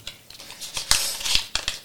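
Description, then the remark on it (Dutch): Dry rustling and crinkling of a small paper slip, number three, being unfolded and handled, with several sharp crisp bursts over a couple of seconds and no voices. “Oké, papiertje nummer drie staat waarom talent binnen de talents”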